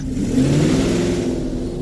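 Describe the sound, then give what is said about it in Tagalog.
A car engine revs loudly as the driver quickly starts the car and pulls away, a steady low droning hum that holds for about two seconds as the vehicle accelerates. No voices. “Alam kong hindi siya nagsisinungaling kaya't kaagad kong pinaandar ang sasakyan.”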